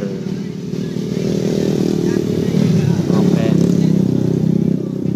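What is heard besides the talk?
motorcycle engine revving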